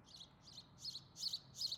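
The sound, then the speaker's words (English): Birds chirping outdoors: a run of five short, high-pitched chirps in a steady, quick rhythm, fairly faint over a low, quiet background rumble, with no talking. “And uh, oh, now the birds be quiet after. I was, just wanted to stop and listen to them for two seconds.”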